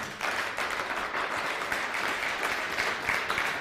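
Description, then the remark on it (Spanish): An audience applauds the Eternal (God) loudly and steadily, a dense wash of many hands clapping at once that holds an even level for several seconds with no voices breaking through. “Denle un fuerte aplauso al Eterno.”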